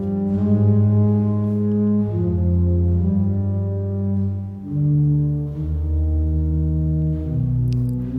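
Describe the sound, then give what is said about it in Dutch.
A pipe organ in the centuries-old Sint-Jan church in Gouda, played by the city organist, plays the beginning of Johann Sebastian Bach's famous Passacaglia: slow, sustained chords with deep bass notes, full and resonant as if filling a large stone space, changing harmony every second or two with no voices. “Vanuit de eeuwenoude ruimten die de Sint-Jan herbergt klinken bijzondere tonen. Bach.”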